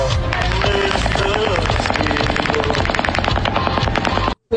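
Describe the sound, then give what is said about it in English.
Rapid automatic gunfire, fired from the 32nd floor of the Mandalay Bay hotel on the Las Vegas Strip at a country music festival, rattles off in a long, dense burst of many rounds, loud and sustained with crowd noise underneath, then cuts off abruptly near the end. “It sounded like machine guns, and it was like several rounds, like hundreds of rounds, and then it stopped.”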